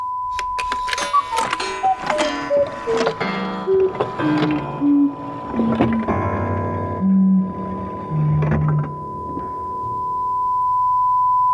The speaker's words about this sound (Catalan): La missió s'havia tallat. L'únic que quedava en antena era aquell so agut, constant.